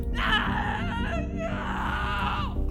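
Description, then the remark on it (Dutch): A test subject screams in long, strained, high-pitched wails that rise and fall over a few seconds, loud, with a low rumbling background underneath. “Ze bleven tegen de microfoons fluisteren tot de tweede proefpersoon begon te gillen.”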